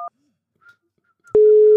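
A telephone call tone as a call is placed: a short electronic beep, a near-silent pause with faint blips, then a loud, steady ringing tone that starts abruptly and holds to the end. No one speaks.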